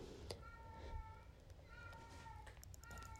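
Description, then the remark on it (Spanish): A pet cat meows in three drawn-out, steady cries spaced about a second apart, clear over a low rumbling background. “Sí, ese es mi gato en un concierto.”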